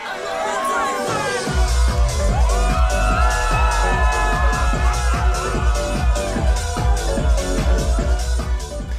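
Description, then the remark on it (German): A crowd of hundreds cheers and screams at a DJ set in Amsterdam over a pounding dance beat with steady bass thumps, whoops and shouts rising above the music throughout, loud. “Und so wie die da schreien, lächelst du eigentlich die ganze Zeit.”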